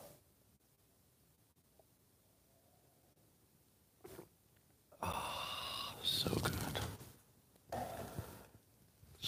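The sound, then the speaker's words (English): After a few seconds of near silence, slurping sips from a drink come in two breathy bursts, loud and airy, with a short pause between them. “It's called the simultaneous sip, and wow, your day's already looking up.”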